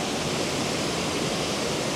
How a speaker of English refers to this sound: Standing here in front of the waterfall at Kletzsch Park.